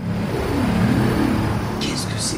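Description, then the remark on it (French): The spaceship-like warning sound of an electric two-wheeler still being designed, reportedly in Denmark: a steady, low synthetic hum whose pitch wavers and glides, with a few short hissy bursts layered on toward the end. “je voulais vous faire écouter aussi le bruit d'un deux roues électrique qui est en train d'être conçu, euh, je crois, dans, au Danemark, si je ne me trompe pas”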